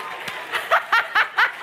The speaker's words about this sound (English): There's guys actually clapping too.